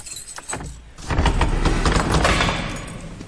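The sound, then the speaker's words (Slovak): Keys jangle and metal clicks in a lock, then a heavy church door, opened by parish staff, scrapes and rumbles open with a low, sustained creak, fairly loud, with no one talking. “Nie je to jednoduché otvoriť také dvere?”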